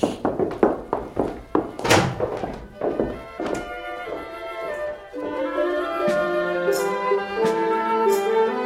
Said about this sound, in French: Sorcier, ouvre les portes.